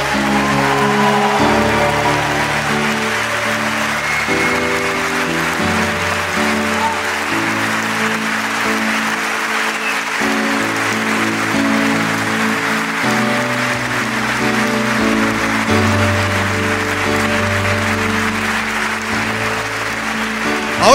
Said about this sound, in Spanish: Si ustedes creen en estas dos promesas, mire, no dude en darle el mejor aplauso al Señor Jesús. No lo dude. Fuerte ese aplauso.